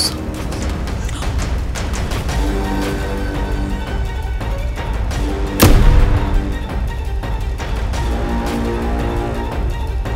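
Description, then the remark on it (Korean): A single sharp gunshot cracks out partway through, with a short ringing tail, over a steady, tense musical drone that continues throughout. No one speaks. “총소리에 눈을 질끈 감았던 현우가 천천히 눈을 떠보니까 아무도 그 누구도 없었어요.”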